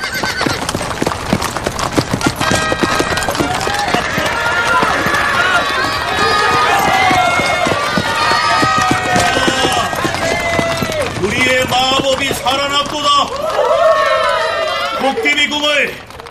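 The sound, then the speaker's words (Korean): Horse-drawn carriage hooves clip-clop in a quick, steady, loud rhythm that runs the whole way through, with high, shrill horse whinnies rising over the trotting toward the end. “도깨비 왕과 공주가 마차를 타고 광장에 들어섰다.”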